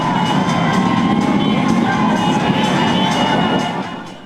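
A crowd of about 250,000 spectators along an evening parade route cheers and shouts continuously, a dense roar of voices with scattered higher whoops and yells, staying loud throughout before easing off slightly at the very end.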